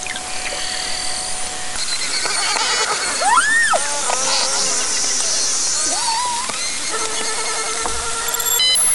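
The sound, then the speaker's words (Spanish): Beluga whale calls, from a whale that lives only in the Arctic: a series of squeaky, rising and falling whistles over a constant dense crackle of clicks and hiss, with no voices present. “Sí, es una ballena, específicamente la beluga.”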